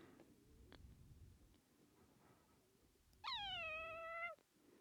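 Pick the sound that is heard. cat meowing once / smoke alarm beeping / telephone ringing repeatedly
cat meowing once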